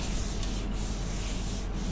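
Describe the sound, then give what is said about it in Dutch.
A cloth wipes steadily across a pan that is not yet clean, making a continuous, fairly loud scratchy rubbing with brief lulls about once a second as the strokes change direction. No one speaks. “Oh, ik ga even met een doekje eh, de pan even eh, afnemen.”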